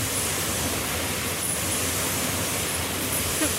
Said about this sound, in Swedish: För om man lyssnar så är det ju ändå någon, det är ju massa olika maskiner men det är ändå någon eh, grundtakt. Vad är det? Det är, jag tror det är de här ultrautsvetsarna som gör grund, grundtakten.